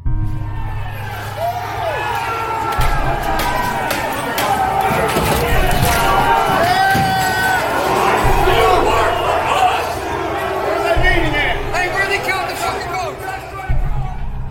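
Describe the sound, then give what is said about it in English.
A rioting crowd surges forward as hundreds of rioters pour into the U.S. Capitol building shortly after 2 p.m., dozens of voices shouting and cheering in a loud, unbroken roar, with scattered thuds and bangs under the clamor for the whole stretch. “Hundreds of people begin pouring into the Capitol building.”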